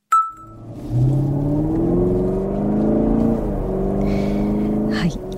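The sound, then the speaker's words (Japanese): The deep 6.2-litre V8 engine of a Chevrolet Camaro SS muscle car roars on a test course, climbing in pitch as it revs and then holding a throaty, steady drone for several seconds before easing off near the end. “あのこれねテストコースで走らせてもらったんだけど、はい、あの V8 6.2リッターカマロ SS っていう車なんだけど”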